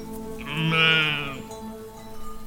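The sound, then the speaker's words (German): A goat lets out a single drawn-out, wavering bleat, loud, that swells and fades within about a second, followed by quiet background. “Es ist die Ziege.”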